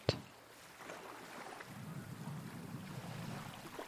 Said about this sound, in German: Und wie das Geräusch der Wellen dich immer weiter entspannt.